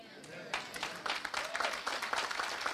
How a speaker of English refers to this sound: What? 10 people clapping their hands? I don't see that.